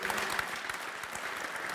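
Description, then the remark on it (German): A crowd claps steadily, a dense wash of many hands applauding at once, sustained throughout. “Irgendwann in die Hände klatschen. Wer hat Ready Player One gesehen?”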